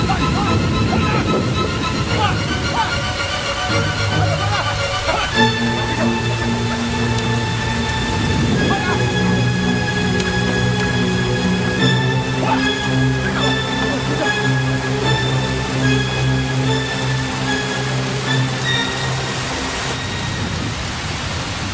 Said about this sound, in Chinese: 下雨了。